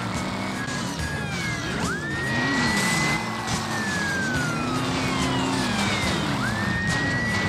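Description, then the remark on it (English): A police siren wails in rising and falling sweeps over a steady roar of car engines, loud, with the chase noise filling the whole stretch and no one talking. “Oh, but I ran into another fucking cop.”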